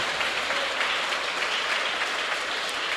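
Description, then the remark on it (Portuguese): An audience applauds Jesus steadily, a dense, even wash of many hands clapping at a constant loudness throughout, with no voices standing out. “Você tem coragem de aplaudir Jesus?”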